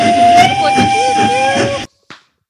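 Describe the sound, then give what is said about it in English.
A loud, sustained steam train whistle blows for nearly two seconds with a steady high tone and hissy breath, then cuts off abruptly, followed by a brief faint puff. “Our podcast hosts on where to find them in this week's plug segment, and you hear the train sound.”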